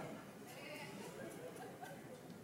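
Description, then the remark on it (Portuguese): A human voice imitates a sheep's bleat with a wavering, drawn-out bleating tone lasting a couple of seconds, steady in loudness, with faint background noise. “Tem gente que não é bé.”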